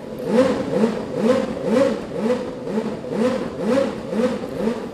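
A high-revving Renault RS4 Formula 1 V10 engine, which reached 14,000 rpm with 750 horsepower and weighed 137 kilos, blips its throttle over and over, each rev rising and falling about twice a second in a steady, loud rhythm with no voices.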